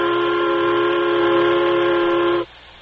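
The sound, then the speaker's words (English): A steam locomotive whistle blows one long, steady, loud blast with rich harmonic tones, holding for over two seconds before cutting off sharply into quiet. “There's the turtleback's whistle now.”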